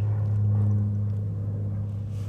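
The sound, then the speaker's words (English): A twin-engine propeller plane cruises back overhead: a steady, droning engine hum with a low, buzzing tone holds throughout, fairly loud and unbroken, with no voices. “Well, there's this two engine plane again, cruising right back overhead.”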